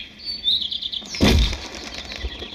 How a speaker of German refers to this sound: Hier, hören Sie? Und? Ja, da muss etwas gewesen sein, was die Vögel in Aufregung versetzt hat. Irgendwas am Himmel, irgendeine pff, Lichterscheinung vielleicht.